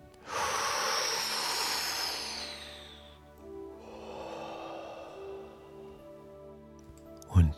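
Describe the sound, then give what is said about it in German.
One deep, airy breath drawn in through the mouth for about three seconds, then a slower, softer exhale, as part of a guided breathing exercise; clear, with no talking. “Und ich empfehle dir, tief durch den Mund zu atmen, weil dadurch noch mehr Luft in deine Lungen strömen kann”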